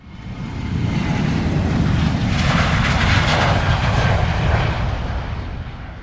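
An airplane roars through a takeoff run, its engine noise swelling in over the first second and holding at a loud, steady rumble with a hissing rush on top before easing slightly.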